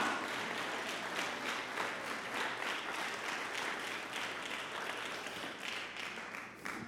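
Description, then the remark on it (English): An audience claps together in steady, dense applause for about seven seconds, the many hands blending into a continuous loud wash with a faint rhythmic pulse and no voices. “This is something to clap about.”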